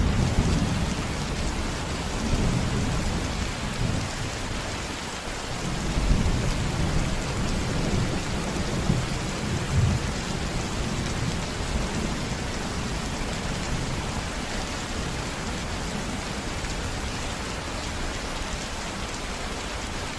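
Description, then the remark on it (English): Heavy rain pours steadily in a dense, hissing wash, with low thunder rumbling beneath it now and then. No voices, just the continuous roar of the storm. “Specialized rain up and down the west coast of the United States.”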